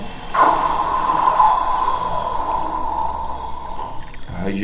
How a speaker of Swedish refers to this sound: det här hesa väsandet från en krokodil mun liksom eh, till höger där.